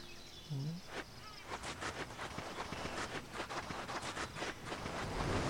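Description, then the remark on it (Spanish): Sea waves in an audio game wash in a steady, hissing roar that slowly swells louder toward the end, with faint crackling surges and no voices. “Camina hasta que escuches el sonido del mar.”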